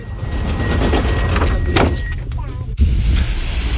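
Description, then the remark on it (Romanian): Sliding doors on a Drumul Taberei metro train close with a steady warning tone and a sharp thud as they shut. A low mechanical rumble follows as the train pulls away. A voice briefly announces in Romanian that the doors are closing. “Atenție, se închid ușile.”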